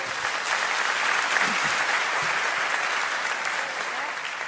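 An audience applauds steadily for several seconds, a dense, even wash of many hands clapping at a fairly constant loudness with no voices standing out.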